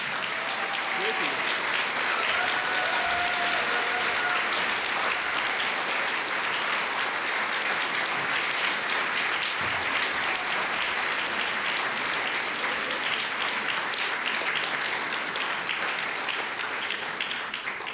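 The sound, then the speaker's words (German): Sustained applause from a large audience at an academy salon, given as thanks and recognition for excellent work, a dense, steady wash of many hands clapping at once, with faint murmurs and a few brief voices beneath it. “Applaus”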